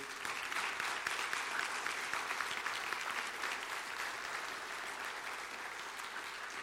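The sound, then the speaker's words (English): A large indoor crowd applauds military veterans standing to be recognized, steadily for several seconds, a dense, even wash of clapping that holds at full strength before easing slightly toward the end. “Give these men and women a round of applause, will you please?”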